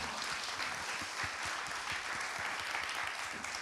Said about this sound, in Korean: 와 박수 한번 주세요.